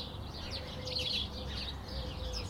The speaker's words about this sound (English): But there's this massive bush all along the path, and this particular spot is always full of birds. You can rarely see them, but they always sing their heart out, and I love it.